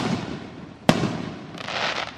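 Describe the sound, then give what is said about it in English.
A single sharp firework bang cracks out, followed by a fizzing, crackling hiss against a steady outdoor background rumble, with no talking; fireworks set off by three young men in the middle of a street right off Marengo in Pasadena. “Police officer and an arson investigator talking to three young men who were setting off fireworks in the middle of the street right off Marengo.”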